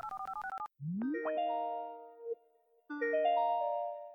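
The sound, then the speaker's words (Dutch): A phone dials with a quick run of short alternating beeps, then rings with two bursts of bright, sustained electronic tones, the first sliding upward in pitch. No one speaks. The call is being placed to a general practitioner. “Herkennen andere huisartsen dit? Ik bel er een.”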